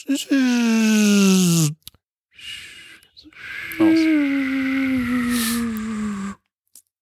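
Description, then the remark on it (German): A voice imitates the hum of an electric car with two sustained, buzzy tones that slowly fall in pitch, the second one longer, separated by a brief breathy sound. “Aber bei den E-Autos sind die so.”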